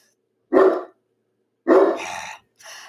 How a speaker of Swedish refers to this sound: Nåväl, jag ska försöka prata över honom. Han brukar inte skälla så himla länge om inte det är någon som kommer. Så jag tror han är tyst nu.